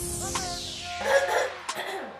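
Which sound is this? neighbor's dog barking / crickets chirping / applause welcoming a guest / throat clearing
throat clearing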